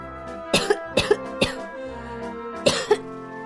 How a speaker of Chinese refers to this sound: 二号绵羊咳嗽起来。我已经感冒好几天了，本来应该好好休息一下，可是没人代替我呀。